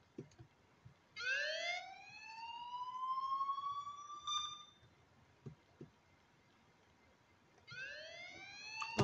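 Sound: police siren sound effect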